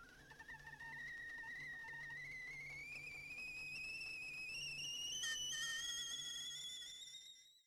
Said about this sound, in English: Uh, tea is boiling. So off we go to the kitchen.